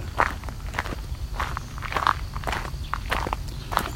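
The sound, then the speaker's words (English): Steady footsteps crunch along a steep hill trail between backyards and mature forest, about eight or nine evenly paced steps with a gritty, scuffing texture over a low, constant rumble of background noise. “So it's a steep hill trail.”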